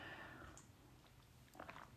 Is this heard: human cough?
no